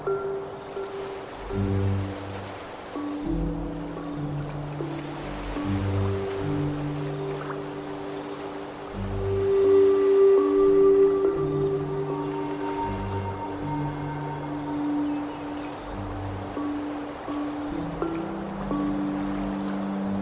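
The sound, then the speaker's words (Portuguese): Steady wind ruffles the calm water in the middle of a lake, small waves gently lapping in a soft continuous wash with low droning tones underneath and faint, regularly repeating high chirps. No one speaks. “vento alisa as águas calmas do lago, produzindo pequenas ondas.”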